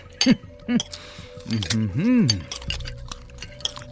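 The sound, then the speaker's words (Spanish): Cutlery and dishes clink lightly in scattered, quick taps throughout, mixed with murmured voices making low appreciative sounds, as men eat a feast of dishes, liquors and sweets offered to them. “Lentamente, los platillos, licores, dulces y el resto de las ofrendas fueron devorados para dar paso a pilas de platos sucios y copas usadas.”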